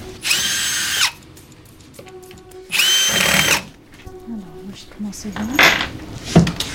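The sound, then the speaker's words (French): A power drill whirs in two loud, high-pitched bursts of about a second each while a display panel is unscrewed in a museum to reveal a stuffed ram, with metallic clinks, rattles and faint voices in between. “Donc là vous retirez le panneau.”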